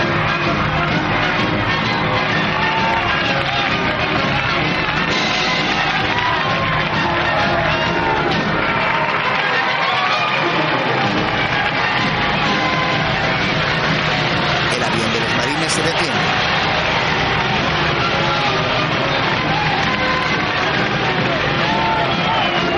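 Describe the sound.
A large crowd of family and friends waving American flags cheers, whoops and claps continuously as a plane returns to base, in a dense, loud wash of sound, with shouts and scattered voices rising out of the roar throughout.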